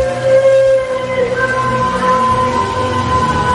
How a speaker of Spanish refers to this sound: Seguido de este llanto, a lo lejos se escucha aquel horrible y escalofriante, quejoso grito lastimero, el llanto de la llorona.